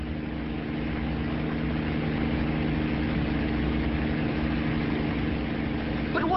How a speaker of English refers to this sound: It's a helicopter, Jamie. Huh? A chopper. You know, a whirly bird. He says it's a bird. No, no, no. It's a, it's a primitive form of flying machine.